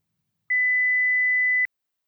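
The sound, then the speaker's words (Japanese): A single steady electronic beep tone from an answering machine holds for just over a second, clean and clear with silence on either side, the signal before recorded message number three is played back. “3番留守番電話のメッセージを聞いています”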